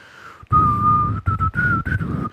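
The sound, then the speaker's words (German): A person whistles a steady, sustained tone in several phrases, the long first note followed by shorter rising bursts, imitating the wind-whistle sample from a song. “Oh, das ist echt schlecht, dass wir alle hier jetzt rumpfeifen und äh, summen, aber irgendwie muss man es ja halt doch bemerken, es ist immer wieder Quatsch, über Musik einfach nur zu sprechen.”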